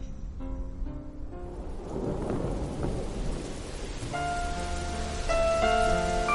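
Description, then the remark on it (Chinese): Steady rain patters down on leaves while thunder rumbles low and heavy, swelling through the middle. Faint sustained tones drift in near the end, and nobody speaks. “你有多久没有打开耳朵，细细聆听雨滴打在树叶上的声音？”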